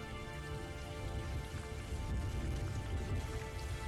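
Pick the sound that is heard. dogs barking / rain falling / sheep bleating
rain falling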